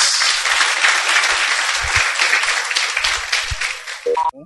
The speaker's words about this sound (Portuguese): A salva de palmas. Salva de palmas.